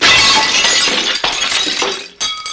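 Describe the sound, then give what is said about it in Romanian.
A mirror shatters in a loud crash of breaking glass, followed by tinkling shards that trail off, then a brief gap and a second burst of clinking fragments. “s-a spart oglinda”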